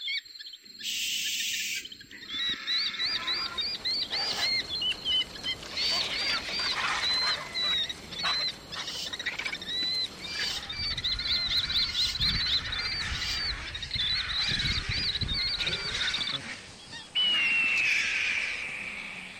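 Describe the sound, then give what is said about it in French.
Shrill, high-pitched bird-of-prey cries repeat in rapid, overlapping bursts, sounding like several raptors calling, with a final drawn-out descending screech near the end. “Passons à des cris d'oiseaux prédateurs.”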